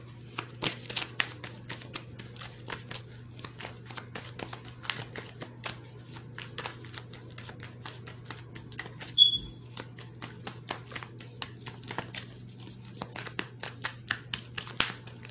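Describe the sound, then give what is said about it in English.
Quiet papery clicks and soft slaps of tarot cards, dropped while shuffling, being picked up, gathered and shuffled, with a steady low hum underneath and one brief sharp tick midway; no one speaks. “And because I just dropped all these cards here from the family card when I was shuffling, so I'm going to pick them up and I'm put them back in.”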